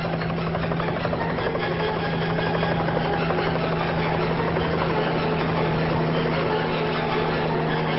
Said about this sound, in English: Anton and Rod look up at the sound of a small helicopter coming into land.